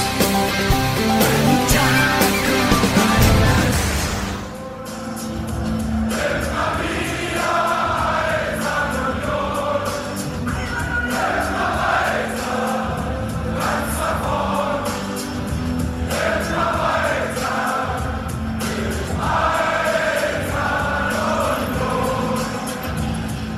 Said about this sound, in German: Das hört sich doch gut an, wenn die Hymnen der Eintracht und des ersten FC Union Berlin fließend ineinander übergehen. Es hat auch seinen Grund, warum diesmal die legendären Fangesänge der Eisernen hier zu hören sind.